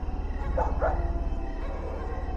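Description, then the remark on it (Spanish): Two quick, high yips or whimpers from a dog, one right after the other, as pet dogs come up to stay with their owner outside a dark house, over a steady low hum that continues after the dog falls quiet. “Recuerdo que en ese momento se me acercaron mis perros para quedarse conmigo.”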